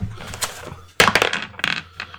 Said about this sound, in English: Here, here's your dice that you just threw at me